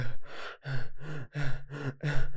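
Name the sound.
voice imitating heavy panting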